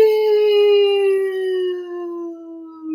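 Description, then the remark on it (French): A voice imitates the whistle of an arriving bomb as heard in films: a single sustained, fairly loud tone that glides slowly downward in pitch for about three seconds, with no other sounds around it. “tu sais on entend souvent ça dans les films puis je me dis tu sais quand la bombe elle arrive là”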